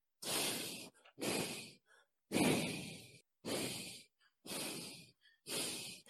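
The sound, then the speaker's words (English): A voice imitates breathing with six loud, airy breaths, each a rough hiss lasting about half a second, spaced unevenly with short gaps so the rhythm feels off-beat rather than steady. “Like breathing almost, right? But it's not in cadence with each other.”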